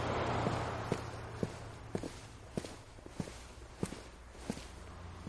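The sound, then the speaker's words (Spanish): Slow, steady footsteps of a person who has got out of a car walk along a hard surface at a gas station toward a convertible, about ten evenly spaced steps, clear over a low rumbling background hum. “Baja del coche y camina poco a poco hacia el descapotable.”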